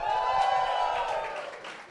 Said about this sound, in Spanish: Ahora reciban con un fuerte aplauso al señor Coco Celis.